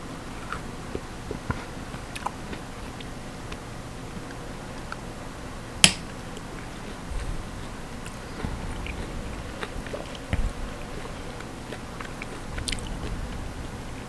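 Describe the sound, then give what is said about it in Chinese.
Quiet, wet chewing of a juicy Asian pear with soft crunches and smacks throughout, broken by one sharp knock of a cut partway through. No one speaks. “水很多哎、水梨哦， 中间有一个很关键的声音，你有没有听到？”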